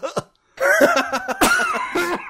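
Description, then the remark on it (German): A coughing fit: several sharp, harsh coughs in an uneven run after one short opening cough, with strained, voiced gasps and rasps between the bursts. “Podcast-Husten.”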